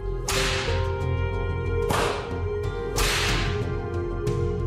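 Three sharp whip cracks ring out at roughly even intervals, each a loud, bright snap with a hissing tail, over a steady low hum and no voices.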